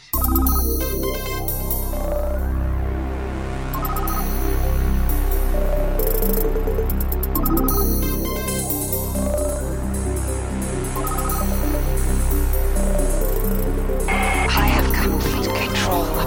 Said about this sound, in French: il a juste à reprendre les pistes MIDI et à remettre bah, des instruments euh, moderne, on va dire, par-dessus